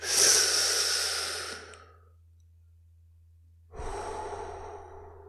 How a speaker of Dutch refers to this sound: En terwijl je dat gaat doen, doe je eigenlijk net alsof je die ademhaling toepast die je ook gewend was met je sigaret.